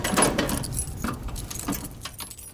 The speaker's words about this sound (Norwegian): Eh, men jeg har noen bilnøkler. Ja, da kan du legge dem inn der.